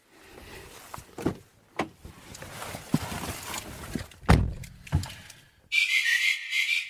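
The door of a Dacia Duster car slams shut with a heavy thud amid a few lighter clunks and rattles, followed by a steady high-pitched electronic tone that continues to the end.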